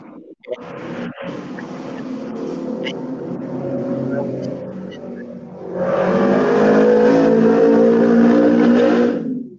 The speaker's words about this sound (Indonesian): Itu mas-mas pakai motor gede itu kenapa sih? Dia hanya mau pamer kan?